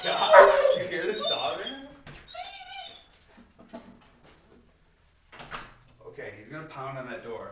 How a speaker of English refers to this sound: Holy shit, though, that was crazy. So he, that's a German Shepherd. Um, they make, they make crazy noises.